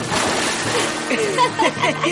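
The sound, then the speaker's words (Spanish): Water splashes and sloshes as a man in his underwear, with a lit cigarette, jumps into the water, a broad wet churn lasting a couple of seconds, with people's voices talking and calling over the splashing. “Chick se queda en calzoncillos, se enciende un cigarrillo y se tira al agua.”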